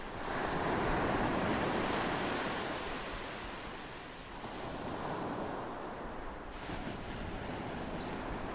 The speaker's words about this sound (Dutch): En dan die golven die met een heerlijke rustgevende regelmaat stuk slaan op een wit strand en af en toe het geluid van een vogel.